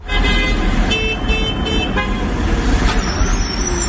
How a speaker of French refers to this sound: Ah, on, déteste euh, les, voitures, les bouchons, les klaxons.